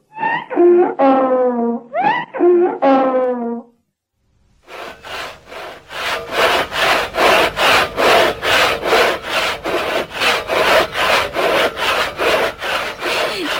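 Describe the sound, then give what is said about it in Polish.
A few seconds of wavering, moaning wails give way to a hand saw cutting wooden boards in half, with steady back-and-forth rasping strokes, loud, continuing in an even rhythm. “Piła trochę tempa. A mimo wszystko przerznął pan już niezliczoną ilość desek, prawda?”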